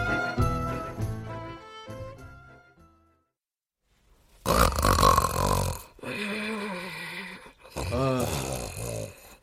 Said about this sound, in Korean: 코 고는 소리 살아있네 아주 건강하게